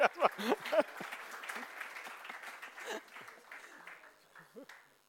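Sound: applause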